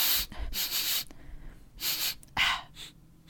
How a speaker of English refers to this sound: I was going to say, it might be honey. Yeah, give, me, it, give it a sniff. Give it a, let me, a... Waft it over here.